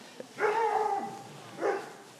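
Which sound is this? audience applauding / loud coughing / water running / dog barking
dog barking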